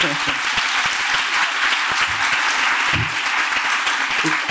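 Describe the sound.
An audience applauds steadily, a dense wash of many hands clapping at an even loudness for several seconds, with a faint voice or two briefly audible beneath it.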